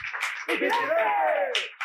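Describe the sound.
Short burst of applause for a singer who has just sung a very high song never before sung live, with a few sharper claps standing out, while a voice rises and falls loudly over the clapping throughout.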